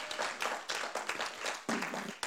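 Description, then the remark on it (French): A church audience at a Sunday morning service breaks into applause for those following online, a dense, steady patter of many hands clapping together in surging bursts for a couple of seconds, with no voices over it. “Et j'ai une pensée et j'aimerais qu'on puisse ici même applaudir tous ceux qui nous suivent sur Internet, qui puissent vous entendre là où vous êtes.”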